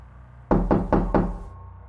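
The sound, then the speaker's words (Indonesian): Four firm knocks on the wooden front door of a house, evenly spaced, with a hollow thud to each rap, followed by quiet. “Dan dia merasa sepertinya memang benar rumahnya lah yang sedang diketuk.”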